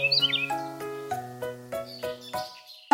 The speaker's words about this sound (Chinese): 现在，钟先生无论走到哪里，都会有鸟叫声跟着。